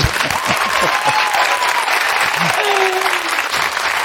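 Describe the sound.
An audience claps steadily in sustained, dense applause at a loud, even level, with scattered voices and whistles rising faintly through the clapping, applauding a pair of actors.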